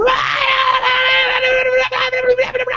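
A person lets out a loud, sustained scream, holding it for nearly three seconds with a brief catch for breath just before the end.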